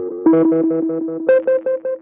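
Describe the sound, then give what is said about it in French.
A heavily distorted, buzzing synthetic tone pulses in a quick steady rhythm, loud, jumping up in pitch partway through, with no voices present; the effects, including distortion, are pushed to the maximum. “Attention, vous êtes prêts la distorsion aussi.”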